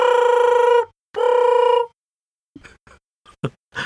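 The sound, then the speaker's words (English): A telephone rings twice in quick succession, each ring a bright, loud buzzing tone lasting under a second. Brief, quieter bits of speech follow after the rings stop. “better pick up that phone.”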